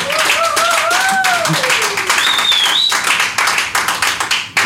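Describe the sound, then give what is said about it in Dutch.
A crowd applauds loudly and steadily for several seconds, dense clapping throughout, with a few rising whistles riding over it before the clapping thins toward the end. “dames en heren, mag ik een applaus”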